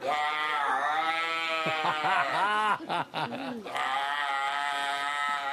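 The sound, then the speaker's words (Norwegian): A seal calls loudly in long, bleating wails with a brief warbling break in the middle, then one more sustained cry. No one speaks. “På tredjeplass, her er en sel.”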